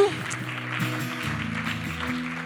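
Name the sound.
audience applause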